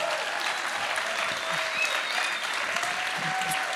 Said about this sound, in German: begrüßt sie mit mir hier einen tosenden Applaus